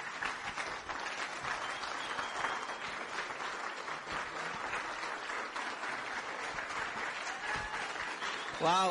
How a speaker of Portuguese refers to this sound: Uau, esses aplausos são para ela. Que legal. Essa é a minha amada.